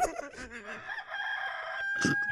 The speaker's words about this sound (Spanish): Es lo que te estoy diciendo, me censuraron a mí con los dos gallos.